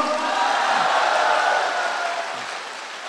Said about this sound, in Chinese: 我们把掌声送给我们的叶部长，好吗？”热烈一些好吗？